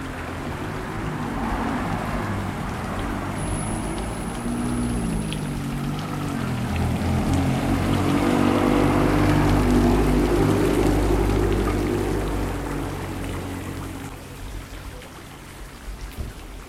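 Steady rain patters on a car's bodywork, heard from inside the car, a dense continuous drumming of drops, with a low rumbling hum underneath that swells slightly midway and eases toward the end.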